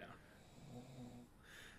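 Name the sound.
snoring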